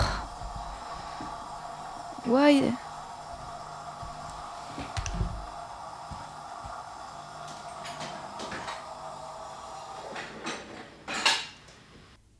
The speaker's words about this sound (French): oh non, mon lave-vaisselle se remet en route, putain, mais trop chelou.